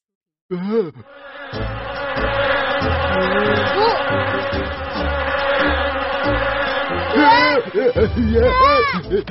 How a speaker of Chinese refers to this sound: 哦！天哪，蜜蜂！